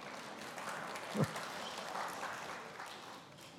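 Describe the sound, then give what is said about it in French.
An audience at a lecture claps steadily for several seconds, a dense, crackling patter of many hands at a moderate, even loudness, with one brief low thump partway through. “devriez peut-être attendre avant d'applaudir.”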